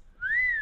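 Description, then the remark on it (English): A single short whistle from a person, a clear tone that rises slightly then gently falls, heard alone without any talking. “you silly I shouldn't have whistled.”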